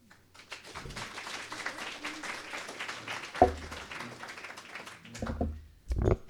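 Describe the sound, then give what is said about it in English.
Audience applause welcoming a speaker to start her talk: a dense, steady wash of many hands clapping for several seconds, with a few louder thumps and bumps near the end as the clapping fades. “So without further ado, I'd like to give her a warm applause to get her started.”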